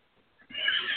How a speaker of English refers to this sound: that was my cat.